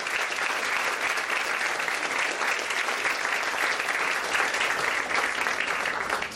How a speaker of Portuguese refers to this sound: E agora eu vou chamar para o seu aplauso também a Cláudia Tages